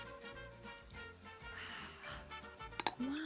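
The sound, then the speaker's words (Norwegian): A couple of quick, bright clinks of glass bottles knocking together ring out near the end, over a steady humming background. “Kan du ta en liten skål også med to glass?”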